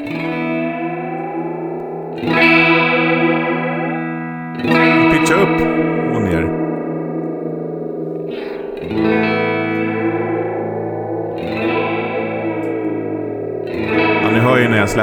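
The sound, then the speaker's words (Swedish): An electric guitar runs through an effects pedal, its button pressed down, that reverses the sound, so sustained chords swell and bloom back repeatedly, thick with modulation and a washy, reverberant tail, fairly loud. “släpper när, då vänder den ju.”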